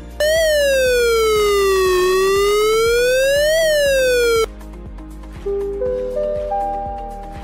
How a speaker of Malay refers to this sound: Keupayaan bunyi siren ini boleh menjangkaui 1 hingga 2 kilometer bergantung kepada keadaan topografi setempat dan terdapat dua jenis siren. Pertama, bunyi siren amaran.